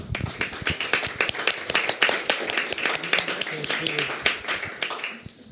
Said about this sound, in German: Einen herzlichen Applaus an alle unsere Unterstützer.